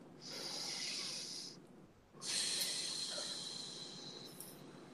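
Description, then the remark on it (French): A deep breath taken in two long phases, a breathy hiss drawn in, a brief pause, then a longer airy exhale, moderately loud with no talking. “Une respiration.”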